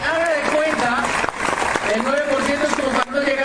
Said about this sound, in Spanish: Démosles un aplauso a los 9%.